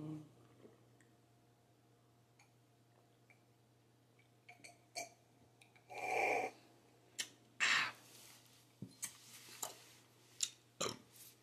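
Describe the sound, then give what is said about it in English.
A throaty burp rumbles out at mid-clip, followed by a few short wet mouth clicks and smacks over a faint steady hum. “Ooh, that was a burp of love.”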